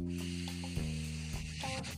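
A long, deep breath drawn in steadily before holding it for 10 seconds, an airy hiss lasting about two seconds over a low, constant hum, with no talking.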